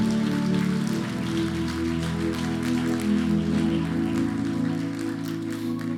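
An audience gives a strong round of applause to the Lord at night: a steady, dense wash of clapping lasting several seconds, with sustained low musical tones playing underneath and no voices over it.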